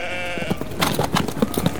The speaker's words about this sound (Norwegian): Uh, folkens, hvorfor kommer alle sauene bort mot oss? Det er sikkert 20 sauer. Hvorfor kommer alle her?